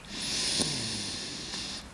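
A long, deep breath drawn in during a guided breathing exercise, a steady airy hiss lasting nearly two seconds with no talking over it.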